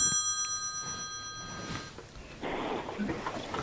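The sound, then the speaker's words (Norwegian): A telephone rings with a steady, bright electronic trill for about two seconds, then cuts off, leaving muffled rustling and handling noise. “Oi, her ringer det.”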